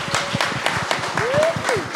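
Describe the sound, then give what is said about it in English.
A crowd claps steadily for a couple of seconds at the end of a show, a dense patter of hands with a rising whistle cutting through and some murmuring voices underneath. “Big hand round of applause.”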